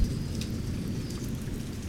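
Soft, steady rain falls outside with a continuous low patter and faint scattered drip sounds, a gentle rumbling wash that stays even throughout with no voices.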